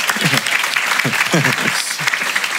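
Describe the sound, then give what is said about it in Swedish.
Steady, dense applause crackles for the whole couple of seconds at a fairly loud, even level, with a few voices talking and exclaiming underneath it. “Är det en applåd eller?”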